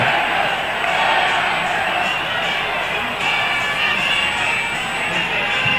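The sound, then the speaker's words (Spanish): A large stadium crowd at a football match involving Tigre sings a chant together, a dense, steady roar of many voices that stays at the same loudness throughout, with no single voice standing out. “Ahora sí, escuchemos. El corito.”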